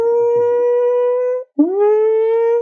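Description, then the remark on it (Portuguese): A voice imitates a quietly ringing alarm with two long, steady humming tones: the first held flat, then a short pause, and the second scooping up into the same pitch. Fairly loud, with no speech. “E aí, com 40 minutos de sessão, eu vou colocar um, um alarme para tocar bem baixinho.”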